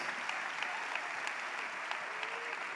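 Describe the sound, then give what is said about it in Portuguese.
A large audience applauds steadily, a dense, even wash of clapping from many hands that holds at a constant level throughout, with no voices standing out. “pode aplaudir, pode aplaudir.”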